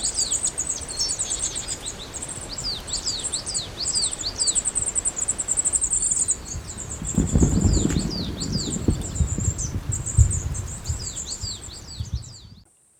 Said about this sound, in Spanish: y bajo las copas, invisibles pero bulliciosos, revuelan los bandos de pájaros forestales. Carboneros, garrapinos, herrerillos comunes, capuchinos, trepadores azules, a veces sutiles, a veces con estrépito.